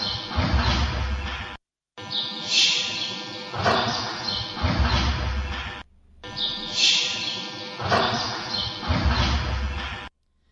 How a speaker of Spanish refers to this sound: Lo que podemos escuchar también eh, de fondo eh, son como unos pájaros que se captan de ambiente. Esto pues no, suele interferir nada en la, grabación.